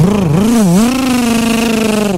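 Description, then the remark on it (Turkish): A voice imitates a modified car in traffic revving its loud exhaust, a steady, buzzing engine drone that dips and rises in pitch a couple of times before holding for about two seconds. “Mesela görüyorum trafikte genelde böyle modifiye arabalar bunu çok fazla yapıyor. O egzozlarına”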